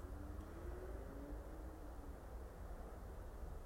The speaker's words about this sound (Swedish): Och rakt över kan jag se där trafiken går. Kanske den hörs i bakgrunden.